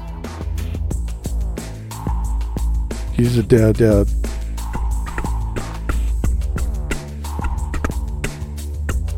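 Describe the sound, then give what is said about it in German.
A hip-hop music sample from an R&B/hip-hop sound pool loops with a steady, punchy beat and heavy bass, a short warbling flourish in the middle, while someone speaks briefly over the music. “Das ist ein äh, RB, also vom Hip-Hop, ein Hip-Hop-Soundpool.”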